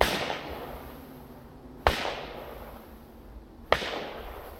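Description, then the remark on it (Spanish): Three loud, sharp gunshots ring out alone at steady intervals about two seconds apart, each a sudden crack followed by a reverberant tail that fades into a dull background rumble. “que entonces viene, se lleva también a esta niña, oye tres disparos.”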